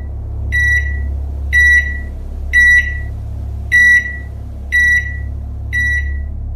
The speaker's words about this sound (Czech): V tu chvíli se ozvalo pípání mikrovlné trouby a obraz v televizi rozmrzl.